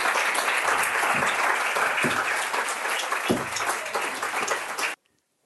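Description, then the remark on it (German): Steady, dense applause from an audience welcoming a guest onto the stage, many hands clapping at an even loudness for about five seconds before it cuts off abruptly into silence. “Vielleicht kriegen wir einen Applaus.”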